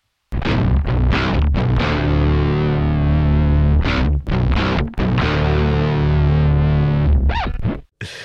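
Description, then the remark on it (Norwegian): A heavy, distorted, down-tuned electric guitar plays a low, chugging riff. The chords are palm-muted, with part of the palm resting on the strings so they ring out less, and broken by short gaps. Loud, with no voices. “spiller med en palm muta-slag, som vil si at man legger en del av håndflaten sin da, på strengen, så det ikke ringer ut like mye.”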